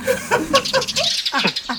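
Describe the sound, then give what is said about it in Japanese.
Outdoor park ambience: bird chirps, small squeaky calls and faint distant voices blend into a steady, moderately loud background with no single sound standing out. “後ろね、あの公園です。”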